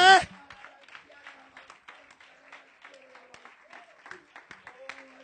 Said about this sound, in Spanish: ¿Alguien puede aplaudir la gloria de Dios?